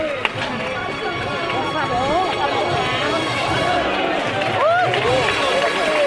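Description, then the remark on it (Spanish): A large crowd in the Pinamontano neighbourhood applauds steadily and loudly for several seconds for a religious procession float of a Christ figure as it stops, the dense clapping mixed with a babble of cheering and calling voices that rise and fall throughout. “cómo aplaude, cómo recibe el barrio de Pinamontano, cómo quiere a su Cristo y el aplauso que se acaba de escuchar se detiene el paso”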